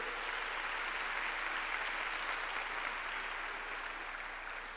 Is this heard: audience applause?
yes